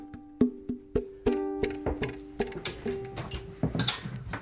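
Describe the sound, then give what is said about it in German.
Glass beer bottles clink together repeatedly as the beers are opened, each knock leaving a short ringing tone, with a couple of brief hissing bursts like caps popping off. No one speaks. “Man öffnet die Biere.”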